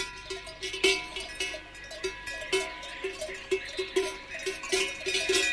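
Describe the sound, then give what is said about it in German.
Cowbells clank in irregular rhythm as grazing animals move about on a Saturday morning in the Bavarian Alps, with bright birdsong overhead and a faint bleat here and there, an open outdoor pasture scene with no talking. “So klingt ein Samstagmorgen in den bayerischen Alpen.”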